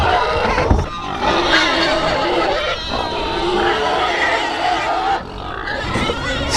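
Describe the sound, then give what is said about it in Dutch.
A crowd of pigs on a farm squeals and grunts loudly and continuously, a dense, chaotic din of overlapping cries while they feed, with only a brief dip near the end. “de rust is een beetje weergekeerd. De varkentjes die hebben eten.”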